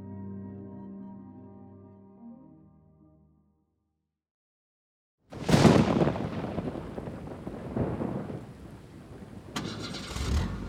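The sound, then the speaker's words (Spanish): After a short musical phrase and a moment of silence, the engine of an expensive rental car suddenly roars to life and keeps running loudly with revving surges, swelling again toward the end as if pulling away onto the highway. “Me deja manejar porque yo conozco la zona. Y nos vamos por la carretera.”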